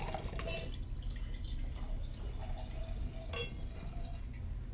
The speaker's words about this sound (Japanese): ボルドーグラスから今ブルゴーニュグラスにワインを入れました、はい。でブルゴーニュグラスをちょっとだけ高い位置から、はい、の空気に触れさせるような、はい、こういうふうに音が出るようにあのお洋服気をつけてください、ね、はい